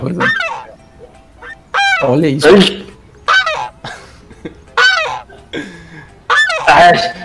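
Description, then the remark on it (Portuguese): A goose honks loudly and repeatedly, around half a dozen harsh, nasal calls in uneven bursts, with a brief spoken remark slipped in among them. “Ó, botei ah, ganso, apareceu o ganso do Santos.”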